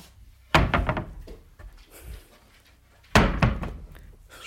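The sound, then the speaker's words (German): A studio door is pushed shut with a heavy wooden thunk, followed a few seconds later by a second loud slam, with quiet shuffling and creaks between the two impacts. No one speaks. “Studio ist wieder geschlossen.”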